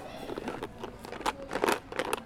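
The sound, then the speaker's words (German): Batteries clack against each other as they are taken out, in a quick, irregular series of hard little clicks and rattles, fairly quiet, with no voices. “Deine Batterien klackern.”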